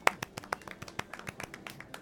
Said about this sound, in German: Und äh, mit, diesen, mit diesen Worten quasi klatscht sie in die Hände